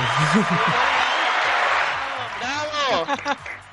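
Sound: applause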